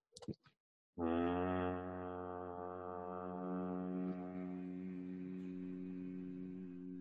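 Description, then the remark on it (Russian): After a brief murmur, a person sits and hums with the mouth closed and the belly relaxed, holding one low, steady, resonant note for about six seconds, loud, fading slightly toward the end. “И посидеть, помычать с прикрытым ртом, так вот.”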